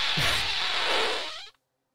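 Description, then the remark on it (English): A loud recorded fart with a dry, rattling buzz, like farting through a Good & Plenty candy box, lasting about a second and a half before cutting off abruptly into silence. “Dude, what the it's like I'm farting through a good and plenty box.”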